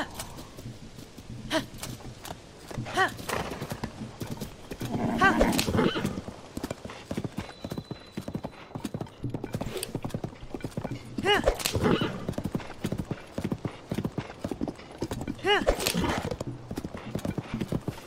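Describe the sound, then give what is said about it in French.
Steady clip-clop of horse hooves at a riding pace, continuous, with several louder bursts that sound like the horse whinnying or snorting along the way. “Mais je crois qu'il pop que quand on est à cheval alors.”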